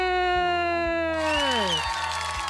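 Audience applause and cheering swell in partway through, over a short musical sting with a steady thumping beat and a long tone sliding downward in pitch.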